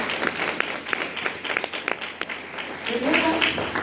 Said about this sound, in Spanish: Así que un aplauso por este ejemplo, por favor